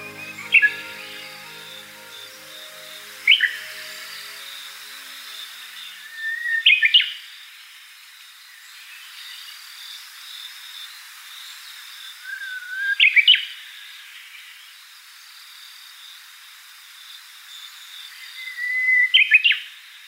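A Japanese bush warbler sings out of season in October on a mountain path on an island in Mie Prefecture, Japan, in short, clear phrases about every three to six seconds, each a thin whistle rising to a sharp flourish, over a steady high hiss, with no voices.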